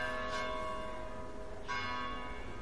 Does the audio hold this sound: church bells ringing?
yes